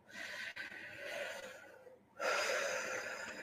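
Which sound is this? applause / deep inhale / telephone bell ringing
deep inhale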